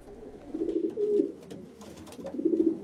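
Pigeons being flown from a courtyard coo in low, throaty, rolling bursts: two warbling calls close together, a pause, then a third, over a soft background hiss with no talking.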